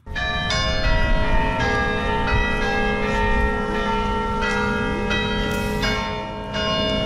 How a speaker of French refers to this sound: Tous les jours, désormais à la même heure, le carillon de la basilique de saint sernin fera résonner l'hymne ukrainien.